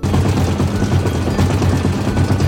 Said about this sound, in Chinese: 稍微用手刷脏的地方，再分批丢到洗衣机洗，就不会互相染色。 不久就听到洗衣机轰隆隆的声音